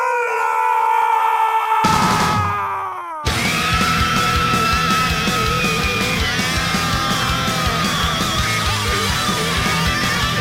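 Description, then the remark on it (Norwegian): A loud, drawn-out howling roar that slides downward in pitch, then breaks into a dense, chaotic wall of overlapping howls and screams lasting several seconds. “Brøl!”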